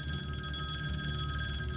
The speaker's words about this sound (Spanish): El teléfono los interrumpe, el sonido del teléfono llena toda la habitación de un momento a otro.